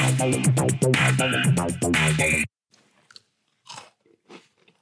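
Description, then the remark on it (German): A short burst of bright music cuts off, followed by a few irregular crunchy chewing bites on crisp Christmas cookies, fairly soft, with brief pauses between them and no voices. “Also leckere Weihnachtskekse, wir haben ja schon Dezember, ne?”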